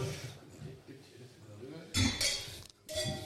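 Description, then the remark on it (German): Wine glasses clink together in a toast in Rheinhessen, Germany: a bright, ringing knock, then another a moment later, fairly loud over soft rustling and low background murmur. “So, also jetzt wollen wir aber der, jetzt wollen wir kurz anstoßen. Wenn das Burgund. Also, Gläschen.”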